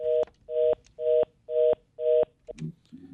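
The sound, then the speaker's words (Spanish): A caller's phone call to a doctor drops while asking a question, cutting into a line tone: five loud, evenly spaced beeps at a steady mid pitch, followed by a brief click and a faint low rumble. No one speaks. “Se le cayó la llamada, pero más o menos se entendió la, pregunta.”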